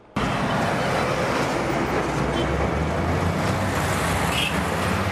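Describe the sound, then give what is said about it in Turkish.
A Turkish military convoy of tanks, howitzers and armoured personnel carriers rolls by in a loud, steady roar, heavy engine rumble and grinding road noise running unbroken for several seconds after starting abruptly. No one speaks. “Diğer yanda onların kullanacağı tanklar, obüsler ve zırhlı personel taşıyıcı araçlar. Askeri konvoyun geçiş sırasında vatandaşlar da desteğini gösterdi Mehmetçi'ye moral verdi.”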